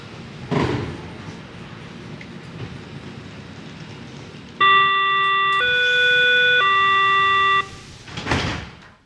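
An S5 S-Bahn train departs a station: a steady three-part electronic chime, stepping down then back up, sounds over rumbling rail noise, framed by bursts of doors hissing and closing before and after.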